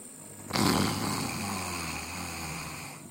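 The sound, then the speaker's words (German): A person doing a breathing exercise draws in one long, deliberate snoring inhale after fully exhaling, raspy, starting abruptly after a brief pause and rattling steadily for a couple of seconds. “Und jetzt atme schnarchend ein.”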